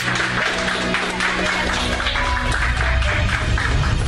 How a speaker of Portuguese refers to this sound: No vídeo, Ibanês é recebido com aplausos e abraços ao entrar no gabinete.